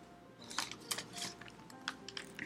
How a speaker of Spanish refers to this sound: ver si escuchas lo de estos ruidos de como de hojas, es que estoy haciéndome aquí garras con, el guión. Prometo ponerle más seriedad a esto.